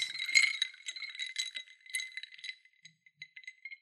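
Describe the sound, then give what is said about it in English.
Ice rattles and clinks in glasses of old fashioned cocktails, a quick busy jangle for a couple of seconds that thins into scattered light taps. Fairly quiet, with no voices. “we're drinking old fashions today. Stacy made us old fashions. So if you hear some of this”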